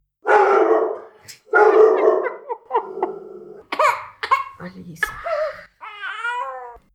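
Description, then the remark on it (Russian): A dog barks and yelps in a series of short, uneven bursts, mixed with what sounds like children's excited voices and laughter, over about seven seconds. “два наших мужа, четыре ребенка, одна собака и робот-пылесос. Иногда вы будете слышать о них.”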